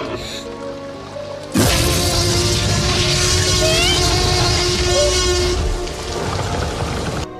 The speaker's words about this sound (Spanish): el sonido que emite el T-Rex está eh, hecho a partir de el gruñido de un oso, de un cocodrilo, un tigre y un león. Entonces, este sonido está mezclado y está hecho justamente pues para pues para impactar, ¿no?